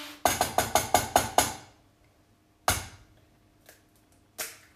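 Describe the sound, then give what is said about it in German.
Eggs are knocked against a bowl rim to separate the yolks: a quick run of seven sharp cracking taps, then one more crack and a few fainter knocks, with no talking. “Ähm, Okay, das machen wir jetzt mit dem Rest der Eier.”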